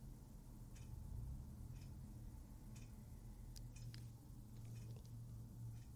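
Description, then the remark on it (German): A clock ticks quietly, its faint, sharp clicks falling roughly once a second over a steady low hum, with nothing else heard. “Hört ihr das Ticken der Uhr eigentlich?”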